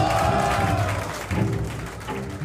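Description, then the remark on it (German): FPÖ supporters cheer and applaud loudly as the first Salzburg election results become known, a dense, steady roar of clapping and shouting voices, sustained for a couple of seconds. “Beginnen wir mit der FPÖ und mit dem Jubel, als die ersten Zahlen heute bekannt geworden sind.”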